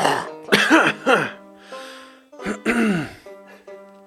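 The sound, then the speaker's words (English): Rough coughing and throat-clearing in two bursts after downing a strong drink, a few harsh hacks early on and another strained round a moment later, with no talking in between. “That was too much cough for a 16, though.”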